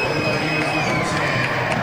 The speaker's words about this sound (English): that was the reason for the big cheer